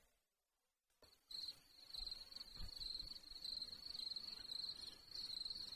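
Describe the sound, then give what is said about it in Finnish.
A steady, high-pitched cricket chirp, used as the sound for when nobody has anything to say, trills continuously after a brief near-silent start, with a faint low rumble underneath and no voices. “Ja meillähän on tämä tärkeä myös tämä, se ääni, kun ei ole mitään sanottavaa mm. kenelläkään.”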